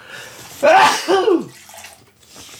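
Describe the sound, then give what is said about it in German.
A single loud sneeze with a breathy intake building into a sharp burst, then a brief quiet breath afterward. No talking. “Und ich muss jetzt mal niesen, Entschuldigung.”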